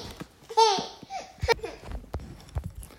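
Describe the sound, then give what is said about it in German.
A little girl babbles and laughs, with high squealing bursts near the start, followed by scattered giggles and soft vocal sounds. “Und, ähm, Ansonsten also wird das nächste Jahrzehnt für uns so oder so total aufregend weil wir, weil wir, äh, ja, hier so ein kleines Mädchen haben.”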